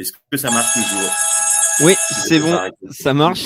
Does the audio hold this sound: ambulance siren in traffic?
no